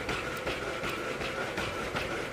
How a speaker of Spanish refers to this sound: Este sonido que están escuchando ahora es el sonido que hacen los robots de Boston Dynamics, el robot Spot.